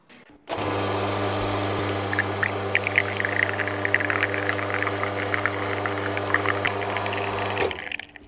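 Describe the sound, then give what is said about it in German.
Coffee with crema streams into a coffee cup from a machine, a steady loud pump drone with trickling, spattering liquid on top, starting abruptly and cutting off after about seven seconds. “Und wir gießen jetzt auch, und zwar die Crema in die Kaffeetasse.”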